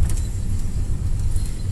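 A steady, loud low rumble of a bus moving along a road, with continuous engine and road noise and a faint rattle on top, no voices.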